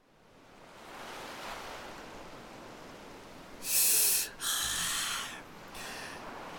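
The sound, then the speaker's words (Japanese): Ocean waves wash steadily onto a shore at night, with two louder, hissing surges breaking midway through. No one speaks. “夜の海ってさ名前の響きはいいけどそんな見るもんねえよな”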